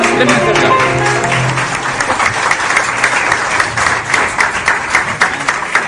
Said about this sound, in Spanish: Quiero pedirles un gran aplauso para recibir en este escenario